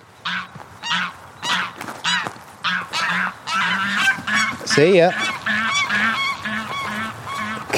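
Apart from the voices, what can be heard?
egyptian geese honking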